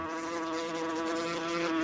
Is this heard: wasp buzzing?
yes